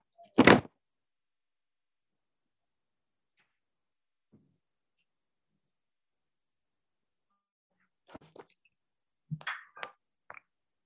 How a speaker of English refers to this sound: If you give me a second, uh, I'm just going to close. There's a, probably some background noise that you're picking up. Just give me one minute, please, second, to close my door.